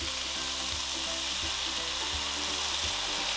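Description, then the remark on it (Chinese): Mushrooms and water bamboo shoots stir-frying in a pan: a steady, bright sizzle with a few soft, low thumps of the spatula tossing the food at a slow, roughly regular pace. No one speaks. “然后呢，我们再稍微把它拌炒一下，这时候菇就可以拌在一起了。”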